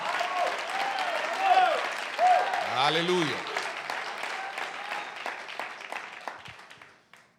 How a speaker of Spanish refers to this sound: Así se da un aplauso fuerte al Señor. Y un grito de alabanza, amén.